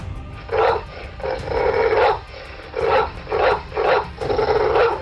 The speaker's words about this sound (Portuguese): O cachorro subitamente levantou do seu canto e partiu latindo e rosnando ferozmente em direção à porta.